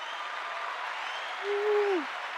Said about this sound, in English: round of applause thanks guys